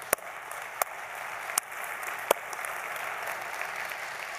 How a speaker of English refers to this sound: I want you to take a look at the picture of his baptism. Just see the joy in him. Yes, let's clap for that.